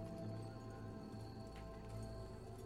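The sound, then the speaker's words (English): Hard, clacking footsteps tap out a quick, uneven rhythm over a steady droning background, the loud clicking feet of a giant spider creature moving toward the listener, echoing off invisible walls, with no voices. “As he's moving towards you, the clicking and clacking of his feet are”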